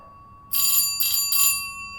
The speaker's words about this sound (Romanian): Deci aveam șapte ani și dormeam la prânz. A sunat cineva la ușă.